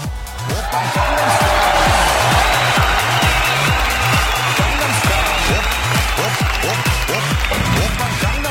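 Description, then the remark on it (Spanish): Audience applause for the heads of Radio Pasión US fills the whole stretch, a dense, steady patter of many hands, loud, with a regular low thumping pulse beneath and crowd voices mixed in. “Un aplauso, por favor.”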